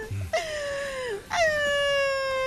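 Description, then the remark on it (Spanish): A woman, the comedy character Pioli Batichica, wails and sobs in two long, high-pitched cries, loud, each drawn out with a sagging, quavering pitch and no other voices around. “¿Por qué está llorando”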